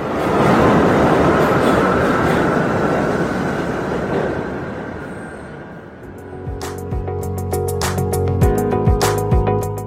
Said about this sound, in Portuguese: Ainda em New York, estamos diante do último vagão do metrô coberto de grafite. Hoje é o seu último dia de operação, de modo que 12 de maio de 1989 é a data de sua retirada de circulação